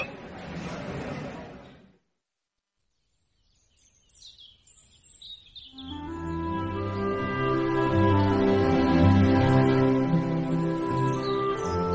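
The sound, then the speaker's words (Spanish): Small birds chirp in quick, high twittering bursts after a short pause, soon joined by soft, sustained elven-style music that rises and carries on beneath the chirping. “¿Lo escuchan? Los pajarillos, la comarca, la tranquilidad.”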